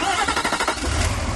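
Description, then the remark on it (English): The Cummins V8 turbo diesel engine of a new 2016 Nissan Titan XD cranks and fires up, a rapid rhythmic chugging that settles into a deep, steady low rumble after about a second. “This is the sound of the Cummins V8 turbo diesel in the new 2016 Nissan Titan XD.”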